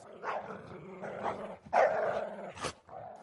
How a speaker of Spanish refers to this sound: un perro empezó a ladrar frenéticamente. Era algún tipo de perro pastor, que Marcos no pudo identificar. No se trataba de un animal especialmente grande o de aspecto peligroso, pero el tono de sus ladridos era de clara amenaza.